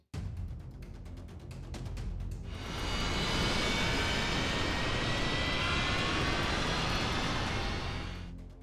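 Jumbo jet aircraft engines roar steadily and loudly, a low rumble swelling after a couple of seconds into a broad, hissing whine that holds, then fades slightly at the end. No voices.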